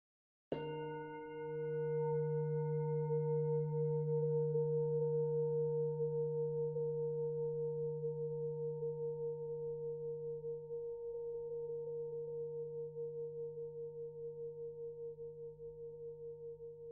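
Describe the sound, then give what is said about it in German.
A single meditation gong strike at the end of a meditation exercise, ringing out in a long, steady hum with layered tones, sustaining loudly for many seconds and fading only slightly, with no voices. “kann auch ein wenig nachwirken, wenn du diese Übung nach dem Gong nun langsam ausklingen lässt.”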